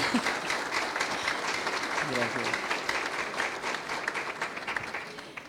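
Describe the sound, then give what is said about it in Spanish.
Steady, dense applause from a crowd during a discussion of a book, many hands clapping in a continuous crackling wash that holds fairly loud throughout and tapers slightly at the end, with a brief voice murmuring beneath. “tú hablabas que justamente Luis Alfonso, sí se vale la pena un aplauso aquí.”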